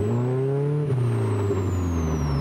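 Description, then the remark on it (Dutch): A Plus 4 sports car's 154-hp four-cylinder Ford engine growls loudly through a throaty Aero Racing sport exhaust, its steady harmonic drone dipping briefly as revs shift, with no talking over it. “Aero Racing sportuitlaat. Ja, het motorgeluid die krijgt wel een hele mooie nadruk hier.”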